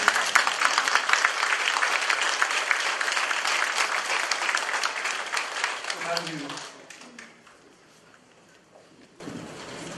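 A crowd bursts into loud, sustained applause for President Moon, a dense wash of many hands clapping that thins out and fades after about six seconds, leaving quiet before faint noise returns.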